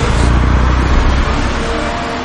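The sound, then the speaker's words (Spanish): A double-decker bus engine starts and rumbles loudly and steadily, a deep, broad roar with heavy low-end that holds at an even level throughout, with no voices. “¿Un autobús de dos pisos? ¡Tu idea suya.”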